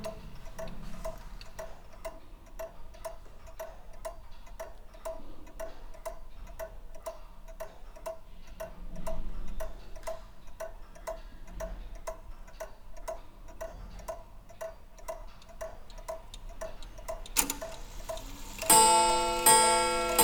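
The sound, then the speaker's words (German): A short-pendulum clock ticks steadily in a quick, even rhythm, fairly quiet, with no voices; near the end a louder bright chiming or ringing sound bursts in. “Und ähm, ja, und dann gibt es noch so die ganz kurzen, über den Kommunenstanduhren.”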